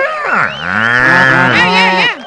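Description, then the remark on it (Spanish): A person imitates a cow with a single long, drawn-out moo, starting low and swelling into a loud, steady bellow before breaking off abruptly. “Tú siempre naciste pareciendo vaca.”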